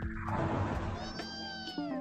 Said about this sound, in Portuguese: Miau.